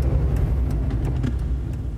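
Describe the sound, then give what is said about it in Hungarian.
A column of cars rumbles steadily along a road, a deep continuous engine drone with no breaks, fairly loud, and no voices. “Így menetelt az a gépkocsi had az uton dübörögve.”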